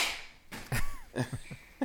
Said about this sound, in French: c'est ma fille. C'est ta fille qui tousse. on va lui souhaiter. Non, elle tousse pas, elle éternue